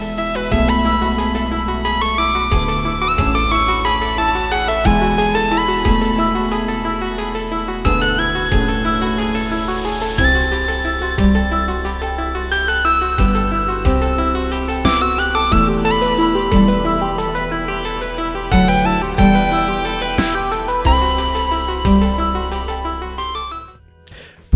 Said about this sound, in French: je vous propose d'écouter un petit morceau de l'OST